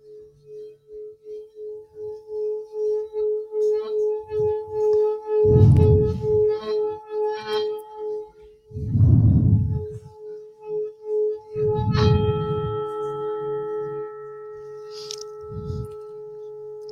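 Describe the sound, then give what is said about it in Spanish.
A singing bowl rubbed clockwise around its rim hums with a steady, sustained ringing tone that pulses and wavers throughout, broken by a few deep, soft thumps. “Una vez en dirección de las manecillas del reloj, resuena el cuenco y después hacia afuera para sacar esa energía estancada y después hacia adentro.”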